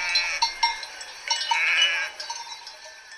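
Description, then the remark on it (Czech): Sheep bleat in a small chorus: a few short, nasal calls, then a longer wavering bleat in the middle and softer ones trailing after, with no voices. “Ovečka patřila do velkého stáda, které mělo zrovna sto ovcí.”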